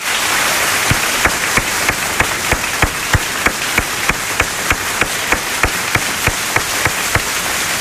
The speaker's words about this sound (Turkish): Bence bu aşk hem bu dijital e, efekte hem de benim ellerimde kalmasın. Siz de alkışlayın.